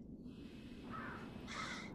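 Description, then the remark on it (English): Two harsh crow caws toward nightfall, one after the other, the second louder and brighter, ringing out over a steady low rumble of background noise. “and toward nightfall the birds came back again.”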